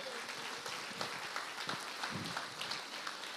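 A church audience applauds the Lord after a Bible reading, with steady, dense clapping that fills the whole moment at an even, moderate level, with scattered sharper claps standing out from the wash.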